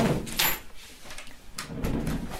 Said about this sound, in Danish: Ja, må jeg lukke døren? Ja.